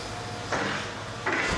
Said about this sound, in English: Okay, well, unfortunately, they're making a lot of noise over uh, next door there. They're tearing down the building over the fence in my backyard, eh?